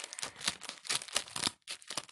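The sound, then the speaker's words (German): Crinkly rustling of a plastic bag being cut upward from the side toward its top to make a zigzag point, with several short rasping snips and crackles and a brief pause before a final burst. “kann man da so Zacken reinschneiden und zwar oben so also von der Mitte so, so von außen, rechts oder links, also rechts und links, schneidet man dann rauf bis zum Anfang der Tüte.”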